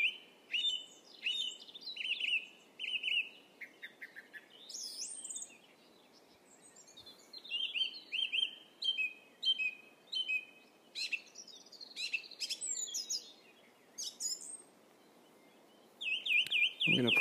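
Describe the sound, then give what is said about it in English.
Layered birdsong fills the air in a woodland, with several birds trilling and chirping in quick, bright phrases over a soft, steady outdoor hush. “And it's only when you stop and listen to it, and there's nothing else that you're supposed to be doing but just walking through a woodland and listening to birdsong, that you realise how incredible it is.”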